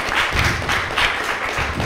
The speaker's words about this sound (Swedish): Eh, ge en stor applåd mina damer och herrar, Sollentunas stolthet,